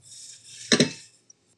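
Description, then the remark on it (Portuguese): Water runs in a kitchen sink with a steady hiss as the sink is given a light rinse to wash off leftover sauce, broken by a brief louder splash and clatter midway, then trails off with a faint click. “Aproveitando que estamos aqui, né, a gente dá aquela leve lavadinha na pia aqui, só para tirar um pouquinho do molho que ainda tinha.”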